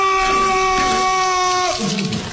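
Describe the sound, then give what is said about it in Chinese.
Water gushes steadily from a tap in a continuous, even hiss, with a sustained humming tone running through it before the flow eases slightly near the end. “二明一看，连忙跑去打开了水龙头。”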